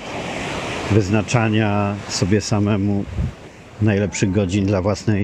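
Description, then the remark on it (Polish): A steady rush of sea waves on the shore, heard briefly on its own and then continuing as a soft, constant wash beneath someone talking in the foreground. “Dlatego na przykład co słychać w tle dla szumu morza, śpiewu ptaków, kontaktu z naturą”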